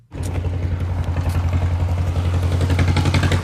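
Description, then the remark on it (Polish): An old historic tractor engine chugs steadily at a show of old tractors, GDR-era vehicles and historic agricultural machines, a low rhythmic thumping idle with metallic clatter running continuously from start to finish, loud. “cel kunst tydzienia wobladać przelatku starych traktorów, wubia autu z NDR-sko czasa a historyjskie ratarskie maszyny.”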